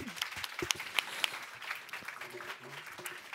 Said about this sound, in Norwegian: Så gi dem en varm applaus.